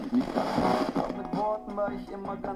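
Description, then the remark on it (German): A world receiver radio tuned across the FM band, with crackly bursts of static and brief snatches of voices and tones that shift every fraction of a second, never settling on one station. “Jetzt haben wir hier UKW.”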